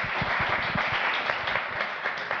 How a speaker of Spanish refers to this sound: Claro, y esto nos da pie al bloque número 3. Un aplauso por el bloque 2 y a todos ustedes.